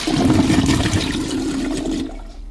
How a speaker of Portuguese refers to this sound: Tem quantas descargas aí ainda? Ah, infinitas. É, doido. A rocha. Descarga para Ciro Gomes.